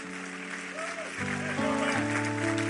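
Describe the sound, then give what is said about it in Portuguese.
A church audience applauds God with steady, dense clapping that swells partway through, while sustained keyboard chords shift underneath. “Então aplauda ele que é digno toda a honra e toda a glória.”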